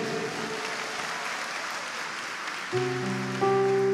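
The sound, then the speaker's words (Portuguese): An audience applauds steadily in honour of the late Padre Léo, a dense, sustained wash of clapping, while sustained musical chords come in near the end and grow louder over the applause. “Dá uma salva de palmas para ele.”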